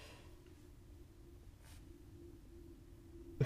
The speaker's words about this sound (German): Ich glaube, das ist ein Flugzeug.